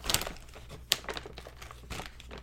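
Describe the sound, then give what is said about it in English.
Crinkling of a plastic M&M candy bag: a steady run of dry, crackly rustles with a few sharper pops, fairly quiet and continuous for a couple of seconds, with no voices. “So you're going to talk spoilers until the bag empties.”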